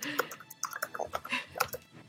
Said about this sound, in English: Oh, she's typing.